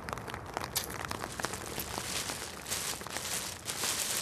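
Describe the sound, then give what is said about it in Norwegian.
A plastic bag of decorations being handled at a grave: crinkly plastic rustling with irregular crackles and handling noises over a steady outdoor background, broken by occasional soft crunching steps. “Elin tar opp en plastpose med pynt, bytter ut noen lykter.”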